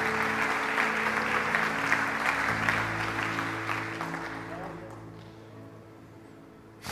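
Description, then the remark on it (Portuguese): An audience gives the Lord a round of applause, steady dense loud clapping over a low sustained musical hum, the applause thinning and fading out over the last few seconds. “Quantos podem dizer amém e dar um aplauso ao Senhor?”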